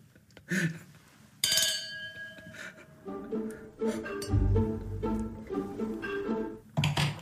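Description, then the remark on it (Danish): A sharp clink of teeth against a drinking glass, followed by a clear ringing tone that fades over about a second, then muffled vocal murmurs and movement. “Se, du de var lidt for fjernskede, og du satte tænderne mod glasset.”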